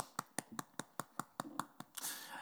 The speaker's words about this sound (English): A little bit weird coming onto a stage where one person is clapping and no one else is in the room.